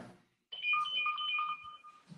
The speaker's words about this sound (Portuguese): Pera aí que eu vou ter que atender a campainha.